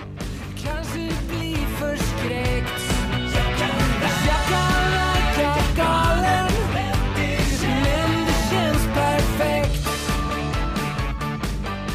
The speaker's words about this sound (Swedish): Det här är alltså eh, den svenska temalåten, eller vad det kallas,